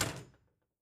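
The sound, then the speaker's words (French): A heavy door, driven by a set of pipes and pistons with no one moving it, swings slowly shut with a single dull, solid thud that dies away within half a second. Fairly loud, with no voices. “Il se retourna pour observer que sa lente fermeture se faisait sans personne pour la mouvoir.”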